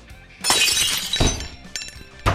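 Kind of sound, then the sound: sound effect, glass breaking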